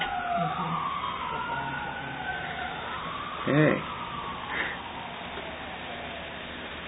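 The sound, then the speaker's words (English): A fire truck siren wails in long sweeping tones, gradually receding, while a man speaks briefly over the background traffic hum. “Is this a two alarmer, two alarmer already?”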